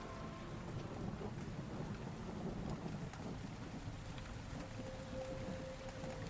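Heavy wind-whipped rain hisses steadily under a deep, rolling thunder rumble, the downpour dense and unbroken throughout, with no voices.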